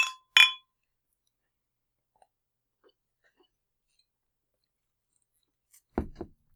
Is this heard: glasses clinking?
yes